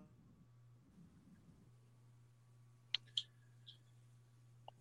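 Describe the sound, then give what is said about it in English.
A call's audio drops out as the connection freezes: no voice, just a steady low electrical hum with a faint background hiss, broken by a few sharp, isolated digital clicks and glitches. “You froze there, buddy.”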